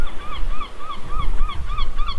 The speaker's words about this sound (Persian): الان میتونیم صدای مرغای دریایی رو بشنویم